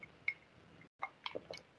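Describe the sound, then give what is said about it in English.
Someone takes a quiet sip of a drink, with a few soft wet slurping and swallowing sounds around a brief silent pause, and no talking. “That sip tasted better than the last sip.”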